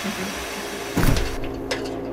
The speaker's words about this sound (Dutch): Hoe gaat zo'n boor? Ik heb een eh, vergissing gemaakt. Nou ja, dan, laat hem dan maar draaien.